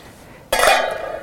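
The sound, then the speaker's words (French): Chopped turnip and rave tumble into a cooking pot with ham hock and smoked pork belly, a sudden clattering rush settling into a steady rustle and faint clinking that carries on to the end, with no one speaking. “Et ce qui est long à cuire aussi, c'est le navet et le rave On va les mettre avec.”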